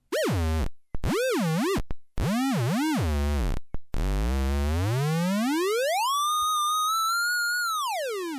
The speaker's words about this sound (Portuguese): Então, a ideia é experimentar vários sons. vou botar alguns aqui, por exemplo, dá para você ouvir, experimentar sons de bateria. Sons de osciladores,